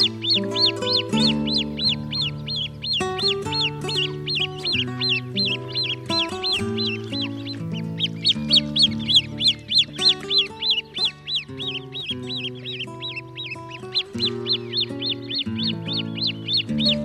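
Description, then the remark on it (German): Great crested grebe calls: loud, rapid, nasal cackling notes repeated in long rhythmic runs, with a brief pause near the middle, over steady lower droning tones throughout. “Das war der Haubentaucher.”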